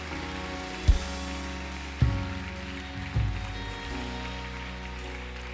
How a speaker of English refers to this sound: Well, let's put our hands together one more time to thank Him this morning.